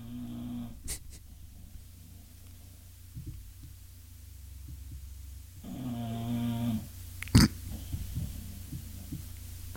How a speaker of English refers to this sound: I'm getting numerous uh, suggestions that uh, Daisy's vicious snoring is bleeding right into the audio. My apologies. I have nothing I can do. She rules the roost here.